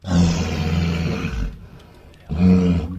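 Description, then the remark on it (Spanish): A walrus bellows loudly, a long deep rumbling call followed by a brief pause and then a second bellow that starts up again, with no talking. “La Morsa. Correcto”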